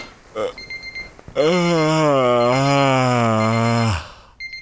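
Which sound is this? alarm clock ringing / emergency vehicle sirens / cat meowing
alarm clock ringing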